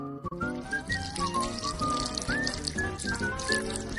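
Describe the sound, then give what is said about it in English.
Oil spilling out while a cake is being made, a steady, fairly loud glug and splash lasting about four seconds, with bubbly gurgling tones rising and falling throughout. No one speaks. “But one little monkey spills.”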